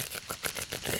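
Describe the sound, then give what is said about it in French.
Quick rubbing of skin over a scar, a rapid series of short, dry strokes with a faintly crackly texture, steady and soft, with no voices. “Le frottement de la peau. Alors ça fait un peu”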